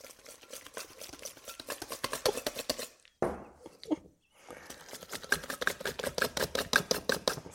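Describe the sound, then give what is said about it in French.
Butter being mashed in a bowl to soften it for cookies: quick, steady scraping and tapping strokes, clear, that stop briefly partway through and then resume at the same brisk rhythm. “Ça y est, j'ai mon beurre qui commence à avoir une texture plus intéressante. On voit quelques petits grumeaux.”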